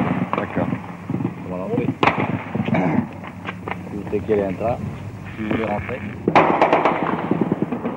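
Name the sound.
gunfire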